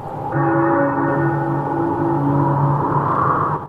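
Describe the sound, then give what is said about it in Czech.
A bell greeting visitors to the underground exhibition of the Sokolov Museum: a loud, deep tone swells in and holds steady for about three seconds, its low humming overtones ringing on without clear new strikes before it cuts off. No voices are heard. “Návštěvníky podzemí Sokolovského muzea přivítá zvuk zvonu a s ním čtyři hororové příběhy, které jim pouští průvodce Antonín Barták.”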